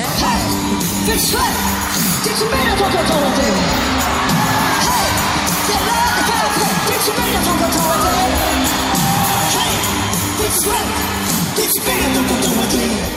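A live concert duet at a show in Montréal, with singing voices over music, loud and continuous, while a crowd cheers, whoops and shouts throughout.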